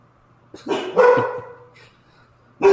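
animal, dogs barking loudly

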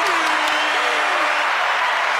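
crowd, applause

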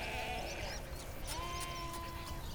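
animal, sheep bleating

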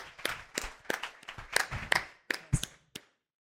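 crowd, audience applause

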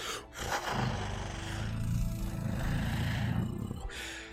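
animal, creature howling

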